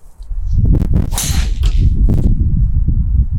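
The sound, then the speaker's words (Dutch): A golf driver swings and strikes the ball in a long-distance drive attempt, with a sharp, loud crack and a brief airy whoosh, followed by a couple of fainter snaps over a steady low outdoor rumble. “Flinke klap”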